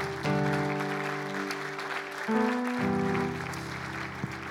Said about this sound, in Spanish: Dale un fuerte aplauso al Señor en esta hora.